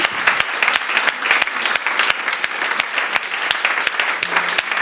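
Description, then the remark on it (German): An audience claps steadily for the people who said they want Jesus in their life for the first time, a dense wash of many hands with sharp individual claps popping out, sustained and fairly loud throughout with no talking over it. “Yes, gib doch mal einen Applaus auch für die Leute, die vorhin gesagt haben.”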